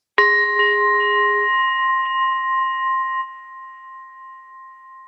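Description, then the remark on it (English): A green Tibetan bell struck with a mallet rings out with a sharp metallic onset, then sustains a bright, shimmering tone with several steady overtones that slowly fade over about five seconds, heard alone. “precisely the sound of the bell that comes about when the mallet or the striker hits this particular green bell from Tibet”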